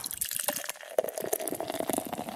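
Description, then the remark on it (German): Estrella beer pours steadily into a glass during a holiday in Mallorca, with continuous bubbly glugging and a bright fizzing hiss running throughout. No one speaks. “Äh, wir trinken Estrella.”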